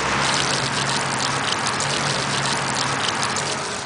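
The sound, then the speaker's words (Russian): A very large dog, whose bladder holds about one and a half liters, urinates in a strong, steady gushing stream that splashes continuously and fairly loudly for several seconds, with no voices. “А вот звуки, с которыми опорожняет мочевой пузырь очень большая собака.”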